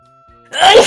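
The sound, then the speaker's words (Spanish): A single loud sneeze bursts out abruptly after a moment of near silence, a sharp breathy blast that holds strong to the end. “Perdón. Salud. Gracias.”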